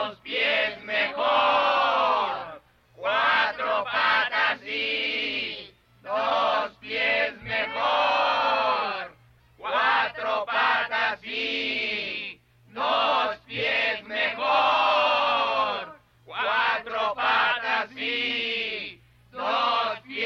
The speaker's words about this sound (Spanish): Pero en ese instante todas las ovejas estallaron en un tremendo balido.